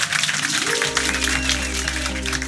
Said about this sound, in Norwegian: Gi Lahlum den fantastiske applausen han fortjener. Tusen takk.